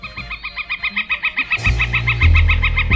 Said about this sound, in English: And its common name was changed officially just a few years ago. We now call it the northern flicker.